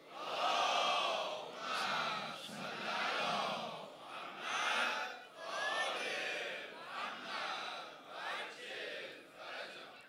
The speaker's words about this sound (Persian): هدیه به پیشگاه متحره بیبی دو عالم حضرت زهرا سلام الله علیها عنایت بکنید با توجه و با حضور قلب اما بلند صلوات هدیه کنید